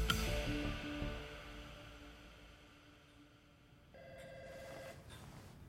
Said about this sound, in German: Hunderte Kilometer entfernt in Bentonville klingelt Lee Scotts Telefon. Er tastet im Dunkeln nach dem Hörer.